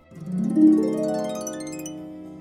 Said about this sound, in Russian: Жук жужжит. Пчела жужжит.